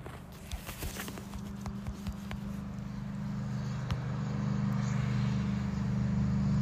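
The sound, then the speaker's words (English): A steady low engine rumble swells as a car approaches and passes by, with a few scattered light clicks or footsteps early on and no talking. “I was wondering how sensitive the EMF reader is to cars passing by, like if they happen to have like a a radio, a radio or something else going on, what that what that does.”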